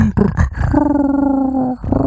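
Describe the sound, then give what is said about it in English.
A human voice mimics a grizzly bear's purring growl: a few short throaty grunts, then one sustained, low rumbling drone lasting about a second, loud and steady, followed by a brief vocal sound. “I, I imagine it's what a grizzly bear sounds like when it purrs.”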